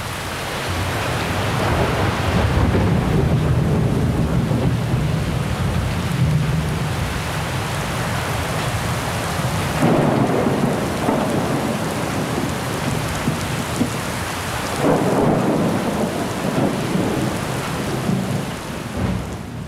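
A thunderstorm with steady, heavy rain hissing throughout and deep rolls of thunder rumbling low underneath, swelling at a few points; no voices.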